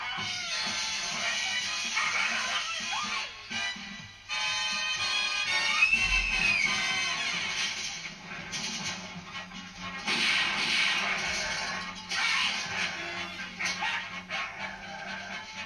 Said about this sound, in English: that's bad. That's just two dogs. Is that werewolf? It's two, two dogs, isn't it?